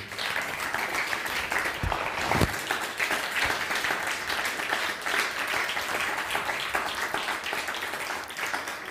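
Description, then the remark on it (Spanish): A crowd applauds steadily for several seconds, a dense, continuous patter of many hands clapping at once, fairly loud, with a few faint voices mixed in. “Bueno, dale un fuerte aplauso”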